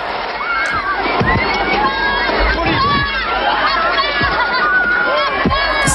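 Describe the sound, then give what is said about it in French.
A dense, frantic crowd of many voices shouting and screaming over one another at a stadium as a stand collapses, in an amateur recording, loud and continuous throughout, with a few sharp thuds and bursts breaking through the din. “Ce qu'on entend là, c'est le chaos, c'est un document amateur qui a été tourné euh, au moment où, s'effondre cette tribune.”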